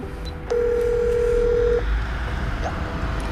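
An intercom keypad button at an apartment block on the outskirts of Odense is pressed, giving one steady electronic beep that holds for just over a second before cutting off, over low outdoor background noise with no talking.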